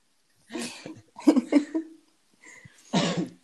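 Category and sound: human body sound, cough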